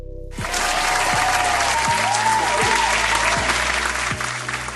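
Sustained applause from a crowd, a dense steady clapping that starts abruptly and holds at full loudness for several seconds, with a low pulsing beat underneath.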